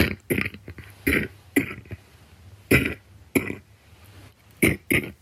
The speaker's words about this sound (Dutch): En wil je nou niet abonneren? Nou, dan laat ik je gewoon deze vieze droge kuch horen totdat je dat wel doet.